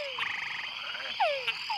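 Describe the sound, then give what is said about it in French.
A chorus of small túngara frogs floating on a shallow pond, calling at nightfall just after rain in the rainy season, Barro Colorado Island nature reserve, Panama, with descending whine-like calls overlapping against a steady buzz of other frogs, several calls clear in quick succession. “Il vient de pleuvoir, la nuit tombe, et de petites grenouilles tungara se sont assemblées autour d'une mare peu profonde.”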